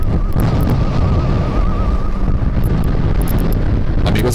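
Strong wind roars steadily across the microphone while sea waves crash and churn against rocks on the seashore in Iceland, a loud, continuous rumble with no voices.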